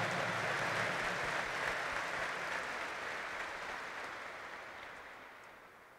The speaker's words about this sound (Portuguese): E para quem está aqui no Santuário Nacional, para quem está em casa, aquela salva de palmas, de acolhida calorosa, fraterna.